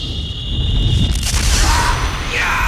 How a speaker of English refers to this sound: a scalding burst of heat and psychic energy shot through the room, throwing everyone to the floor and leaving their minds searing with pain.